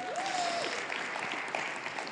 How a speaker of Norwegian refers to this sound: Så jeg fikk en blondine da, til å hjelpe meg litt her. Der, ja! Flott. Ja. Veldig bra. En applaus.